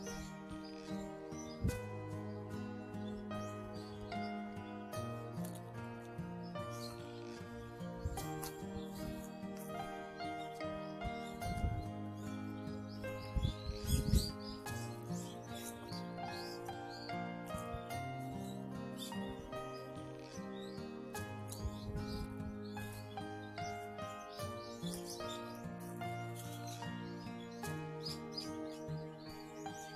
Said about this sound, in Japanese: お役に立たない代わりに自然の鳥の鳴き声。まあこういうことで、えー、一時5秒でも10秒でもご一緒、ね、鳥たちとご一緒していただけると嬉しいと思いますね。ちょっと私が静かにしましょうかね。